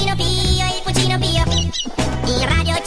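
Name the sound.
hen clucking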